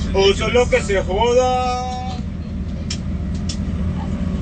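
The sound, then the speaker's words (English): Steady low engine rumble fills a moving bus interior throughout as the bus arrives at a hotel, with indistinct voices talking over it for the first couple of seconds and a few faint clicks near the end. “Are you on a train? No, we're on a bus.”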